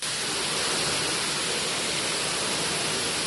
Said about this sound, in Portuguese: Em poucos minutos, a chuva destruiu parte da estrutura do Hospital Estadual Nossa Senhora de Nazaré, em Saquarema. Um dos corredores da unidade mais parece uma cachoeira.